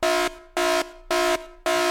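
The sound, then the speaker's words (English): An air horn alarm sound effect, used as a dad joke alarm, blares four short, loud, evenly spaced blasts, each a bright, brassy honk with brief silences between, alone with no voices. “Oops, there goes the dad joke alarm.”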